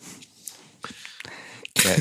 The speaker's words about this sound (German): Da muss er wieder husten. Du darfst mich nicht zum Lachen bringen, weil dann ich dann huste.